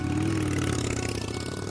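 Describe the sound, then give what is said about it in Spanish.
A motorcycle engine runs at a steady idle, with a low, continuous rumble, some mechanical clatter and a slight rise in pitch early on as it is put into first gear. “A veces todo se trata de meter primera y seguir hacia adelante, porque mi moto, como la mayoría de las motos, no tiene marcha atrás.”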